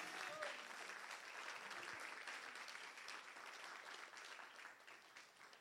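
A church audience applauds Jesus steadily during a sermon, a dense wash of many hands clapping at an even level for several seconds before tapering slightly at the end.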